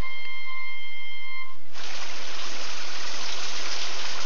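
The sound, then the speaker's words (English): After a second and a half of faint tones, a loud, dense hiss of heavy monsoon rain and rushing water in India bursts in and continues steadily, with no voices; it has been raining like this for 30 hours. “The monsoon. It's been raining in India like that for the past 30 hours.”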